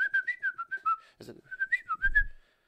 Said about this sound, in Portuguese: Eu assobiava pros guris e eles diziam, oh, meu, cara assim.